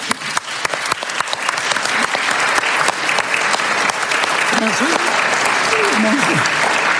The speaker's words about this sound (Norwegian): Så jeg vil gjerne klappe for nasjonalbiblioteket.